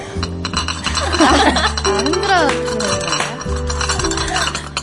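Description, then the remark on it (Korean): Teacups clink and clatter against each other for nearly five seconds, mixing bright ringing tones with rubbing and scraping of china, in a steady, busy run without pauses, made into a microphone as ASMR sounds for tea time. “딸그락딸그락 아, 네, 사운드를 풍부하게 디 아, 네. 티타임에 맞는 사운드를 네.”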